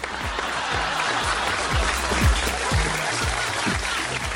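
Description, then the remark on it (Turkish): A crowd breaks into steady, enthusiastic applause, dense clapping filling the whole moment at an even loudness with no voices standing out. “Alkış hak eden bir konu.”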